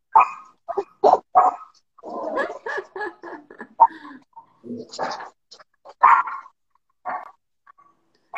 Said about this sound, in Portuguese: Pausa para Tuca latir.